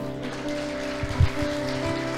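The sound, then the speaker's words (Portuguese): A church audience applauding the Lord, a dense, steady wash of many hands clapping together, with sustained low keyboard tones humming underneath and a few soft thumps near the middle. “Aplauda o Senhor.”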